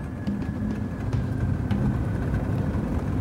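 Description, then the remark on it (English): Dozens of heavy trucks carrying palm oil from plantations on the island of Borneo, Indonesia, rumble along a road with a steady, loud low engine drone and continuous road noise, no voices present. “These dozens of trucks are extracting palm oil from the plantations.”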